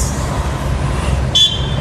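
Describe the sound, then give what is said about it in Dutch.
A short, high-pitched car horn tone sounds once near the end, heard from inside a moving car, sustained for about half a second over a steady low rumble of road or engine noise, with no one talking. “Is dat er nou te toeteren?”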